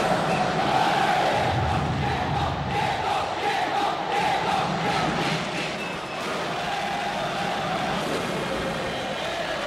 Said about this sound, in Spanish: Escuchá, escuchá la tribuna. Se prendió fuego todo. No, estaban todos re locos.